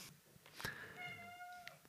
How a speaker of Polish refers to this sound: Aha, poznajcie mruczka odzywa się właśnie. Piękny, wspaniały okaz czarnego kota, bardzo sympatyczny i bardzo towarzyski. I od razu uprzedzając Wasze pytanie, nie, nie przynosi pecha.